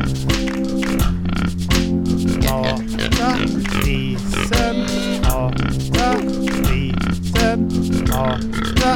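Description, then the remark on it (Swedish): A voice imitates a pig, letting out repeated grunts and oinks in a loud, busy run over a steady tonal backing, with no pauses across the stretch. “Mamma mata grisen.”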